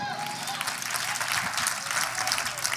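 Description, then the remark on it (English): An audience claps their hands together to give God praise, a dense, steady wash of many overlapping claps that holds at an even, fairly loud level for the whole stretch without pausing. “Now clap your hands and give God praise.”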